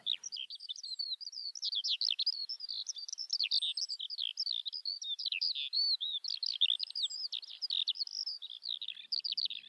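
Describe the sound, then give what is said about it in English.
Continuous, rapid high-pitched warbling and trilling birdsong of skylarks, lapwings and curlews on moorland, steady, with a few faint thin whistles above and no voices. “You know, it's the lapwings and the curlews because I think there's just nothing nicer than hearing that and how many people hear that.”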